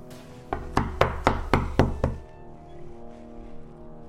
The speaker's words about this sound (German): Und ich äh, klopfe an.